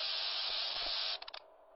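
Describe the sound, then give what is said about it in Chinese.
Loud, steady static from a radio tuned to 89.1 and heard through headphones at night hisses for about a second, then breaks into a few choppy crackling bursts before dropping to a faint wash of noise. No one speaks. “电流声传出，我闭上了眼睛。”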